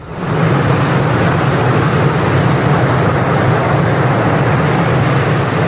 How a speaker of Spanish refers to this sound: Hoy les mando la postal sonora desde una playa.